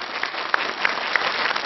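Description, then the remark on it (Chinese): TV show studio audience applause welcoming an elderly couple onto the stage, a steady wash of many hands clapping with a few sharper individual claps standing out, fairly loud and even throughout, with no voices over it. “掌声有请老两口。”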